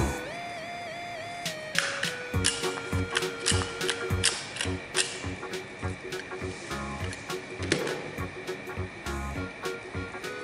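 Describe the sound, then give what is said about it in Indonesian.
Small holes being punched in origami paper: a run of crisp clicks and crunches at an uneven pace, with soft background music playing throughout. “Pertama kertas lipatnya kita plong dulu ya adik-adik ya.”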